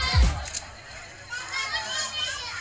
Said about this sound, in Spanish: Pero ruido de gente, ¿no? Pero. ¿Alguien me puede explicar esto? A ver, a ver, acércalo. ¿Pero qué está sonando? estoy flipando. ¿Qué es eso?